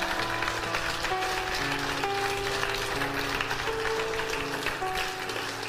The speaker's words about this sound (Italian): Oh, fai un applauso al Signore.